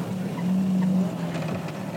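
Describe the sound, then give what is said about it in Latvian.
A car engine hums past in a low, steady drone that swells slightly in the middle and then eases off, with a faint rushing noise over it and no talking. “Brauks, brauks garām.”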